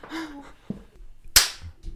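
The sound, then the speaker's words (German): A single sharp hand slap cracks out, a quick swat at a mosquito, after a moment of soft rustling and a brief faint murmur; the smack is bright and sudden, then fades fast. “Ich hab sie angeklatscht, aber nicht ganz geklatscht.”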